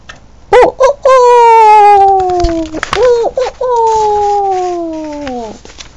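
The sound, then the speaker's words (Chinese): A huge red-combed rooster standing up high crows loudly twice, each call a short rising note followed by a long, bright, sustained cry that slowly sinks in pitch before breaking off. “一听见嘹亮悠扬的鸡鸣声，蝎子精显得神色慌张，急忙想要趁机逃走。”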